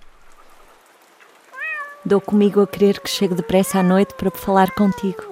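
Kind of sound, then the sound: animal, cat meowing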